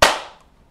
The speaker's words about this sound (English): That was good. That was a really. That was perfect timing. That was a really good clap.